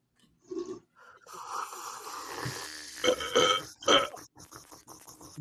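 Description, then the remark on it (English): A long, drawn-out burp rumbles and gurgles for several seconds, loud and croaky, with rough rising and falling pitch and a couple of sharper bursts near the end. “I gotta, gotta, gotta lay in the burp. Gross.”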